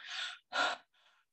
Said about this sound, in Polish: I robię głębokie oddechy.